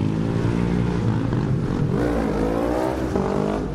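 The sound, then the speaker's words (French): Loud motorcycle engines rev and roar continuously, their pitch climbing and falling as the bikes accelerate off for a ride, with no voices over the din. “Hein on aime bien les motos, on le montre. Ils vont faire un tour, hein, je sais qu'ils vont revenir.”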